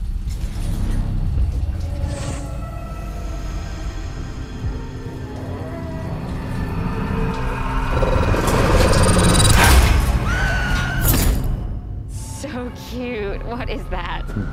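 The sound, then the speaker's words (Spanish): The killer sloth creature in a trailer for the summer slasher film Slaughterhouse growls and lets out shrill, wavering squeals over a dense, rumbling cinematic backdrop, loud and continuous, swelling toward the middle before a final screeching cry. “Escucha cómo hace el perezoso asesino.”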